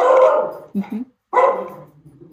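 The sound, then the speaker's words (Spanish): A dog barks in a few loud, harmonic bursts, pausing between them, with a brief low whimper-like sound in the gap and faint background noise after. “Este, yo tengo un perro aquí que está colaborando conmigo y que decidió que quiere ser parte del podcast, me da mucha pena.”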